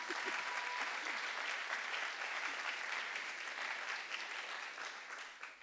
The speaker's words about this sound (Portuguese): Vamos dar uma salva de palmas para a tradutora que está indo muito bem.